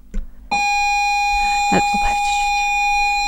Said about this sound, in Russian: вставлялась аудиокассета в магнитофон и загружалась игра